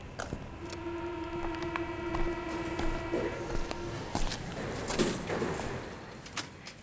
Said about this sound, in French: Dimanche 16 mai 1937, 18h30. Une rame en provenance de la station Porte de Charenton entre à la Porte Dorée.